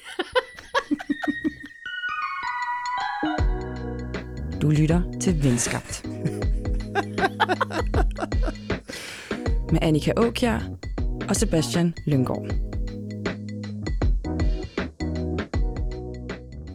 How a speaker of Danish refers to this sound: nu kommer der en jingle.